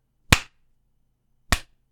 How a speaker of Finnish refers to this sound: niin sehän pitkä clap. Slow clap. Clap, clap.